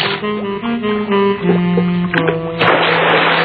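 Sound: water splashing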